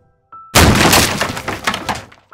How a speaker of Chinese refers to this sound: 玩具通通从柜子里面满了出来，发出好大声的声音。